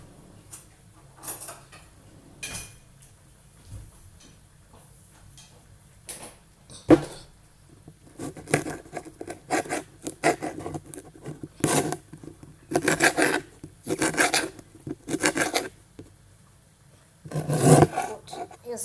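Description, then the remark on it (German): Knife cutting peas into small pieces on a board: scattered taps at first, then a run of quick, crisp chopping strokes in an uneven rhythm, with no talking over it. “Weiter geht's, indem wir die Erbsen klein schneiden.”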